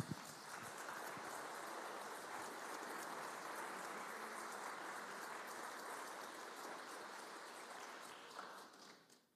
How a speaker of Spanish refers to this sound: Da un aplauso a Jesús.